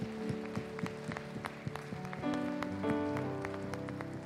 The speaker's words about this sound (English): Come on and give Jesus one more hand clap of praise.